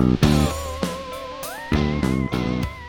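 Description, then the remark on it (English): A short burst of distorted, effects-heavy theme music, with punchy accented hits and a sliding lead melody over a heavy low end. Loud and upfront, with no voices. “When you hear that music, you know it's time for the Action Comedy Nerd Show.”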